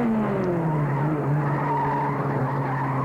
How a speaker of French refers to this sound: Et Gilles appuie sur l'accélérateur.